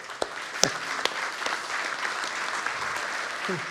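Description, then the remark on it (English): A large crowd claps steadily for the kids' ministry volunteers, a dense wash of many hands with a few sharper claps standing out, at moderate loudness. “And let me just take a moment and we need to clap for them.”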